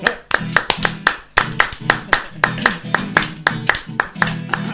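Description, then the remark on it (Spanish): Steady rhythmic hand clapping keeps time with a lively chacarera folk song, sharp claps landing in a regular pattern over a sustained instrumental backing with a low pulsing bass. “Vamos, vamos con las manos. Vamos. vamos. Aplausos.”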